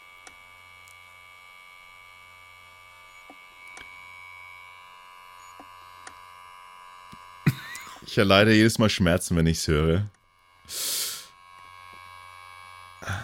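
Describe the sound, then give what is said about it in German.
A failing hard drive, recorded at the moment it died, hums steadily while its head clicks faintly at irregular intervals. A person then speaks briefly over it, followed by a short burst of noise. “Nee, das ist, äh, das, was du gehört hast, ist eine Festplatte.”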